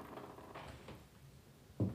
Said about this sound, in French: On passe la carte pour ouvrir la porte.